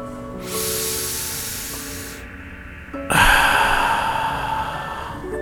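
A long, deep breath drawn in through the nose, followed after a brief pause by a fuller, louder breath pushed out through the mouth, both airy with a soft hiss, and no talking.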